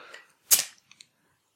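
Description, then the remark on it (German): A cola bottle's cap is pried off with a bottle opener: a sharp pop with a brief fizzy hiss, followed by two small metallic clicks, with no talking. “Nee, nee, hier ist ein Flaschenöffner.”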